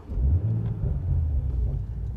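A car, opened without its key by relaying the key's radio signal, is started and driven away; its engine rumbles low and steady, a deep continuous drone that holds at a fairly even loudness.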